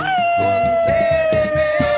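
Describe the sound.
A person lets out one long, loud imitation of a coyote howl, holding a steady wavering pitch that slowly sinks, over rhythmic thumping music in the background.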